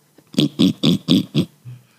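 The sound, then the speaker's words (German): A person imitates a pig's grunting with five quick, evenly spaced snorting grunts, fairly loud, followed by a brief low rumble as it trails off. “Äh, ich kann, glaube ich, äh, ein Schweinegrunzen ganz gut machen.”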